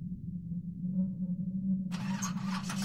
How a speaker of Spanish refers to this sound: Solo hasta entonces la camioneta encendió